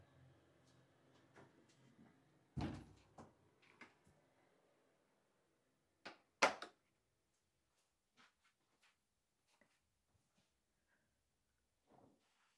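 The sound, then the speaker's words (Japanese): A door is closed with a couple of dull, fairly soft thuds a few seconds apart, surrounded by faint clicks and light handling noises, with no one talking. “今あ閉めてもうたドドア閉めてるんですけど大丈夫ですかねこれで”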